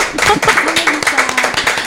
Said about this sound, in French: une grosse pensée pour Mélissa qui malheureusement ne peut pas être là ce soir avec nous ou bah, demain. Oh, bah, on, pense juste, on l'applaudit. Hein on l'applaudit quand même.